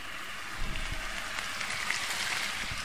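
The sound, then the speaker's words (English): A steady, crackling sizzle of port poured into a hot pan to deglaze it after cooking pork with herbs, loud, with dense hissing and popping throughout and no one talking. “I'll never tire of hearing that sizzle on your pan, no matter what dish you're doing.”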